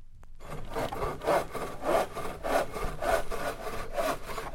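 A hand saw cuts steadily through wood in a quick, even back-and-forth rhythm, each rasping stroke clear, with no voices present.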